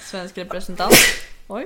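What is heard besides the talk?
sneeze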